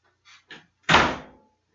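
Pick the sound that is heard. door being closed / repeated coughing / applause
door being closed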